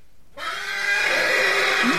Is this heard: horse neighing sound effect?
yes